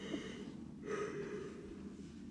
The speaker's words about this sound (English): Don't start yawning or else we all yawn. I can't yawn yet.